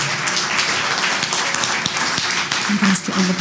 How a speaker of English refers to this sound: Please give a clap to the Lord.